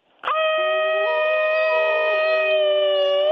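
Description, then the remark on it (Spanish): A loud coyote-like howl begins abruptly and holds a long, steady wavering pitch for about three seconds, with a second lower howl joining partway through. “Hasta pareces coyote, despiertas a los coyotes, criatura.”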